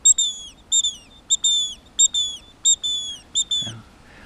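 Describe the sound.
A person imitates a great tit's bright, whistled three-part song, repeating the short high phrases in a steady rhythm about seven times. It is clear, with no talking.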